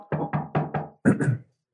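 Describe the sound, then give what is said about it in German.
A father knocking on a door: four quick, evenly spaced raps followed by two louder, heavier knocks, with no talking, then silence. “Mein Vater kommt an meine Tür, macht.”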